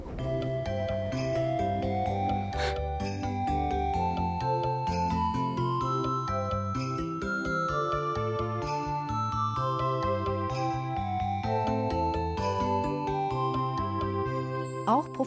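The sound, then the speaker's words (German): A bright, cheerful train departure melody for the train in the other direction plays at JR Tagadanobaba Station in Japan for about fifteen seconds: chiming tones and a moving melodic line over a steady rhythmic accompaniment, with no talking over it. “Wir fahren zurück über die JR Station Tagadanobaba, um die Abfahrtsmelodie des Zuges in die andere Richtung zu hören.”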